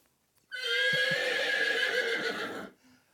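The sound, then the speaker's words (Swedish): A single loud horse whinny, used as the Vikingåsen quiz team's buzzer sound, lasts about two seconds, bright and shrill with a rough, shaky quaver, with no talking around it. “Ja, det där låter i mina stadsöron som en häst i alla fall.”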